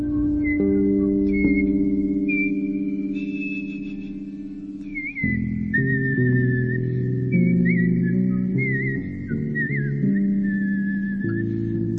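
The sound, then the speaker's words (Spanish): A person whistles a wavering melody, holding long notes with small slides and trills, clear over a steady bed of low sustained instrumental tones throughout. “E incluso traté de animarle silbando algunas de las melodías que había oído la noche anterior.”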